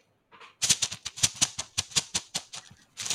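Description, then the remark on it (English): A rapid, rhythmic clatter of many dice being shaken together in a giant bag, a bright rattling that keeps going in bursts for a few seconds with no talking. “For the listeners, it is such a big bag of dice.”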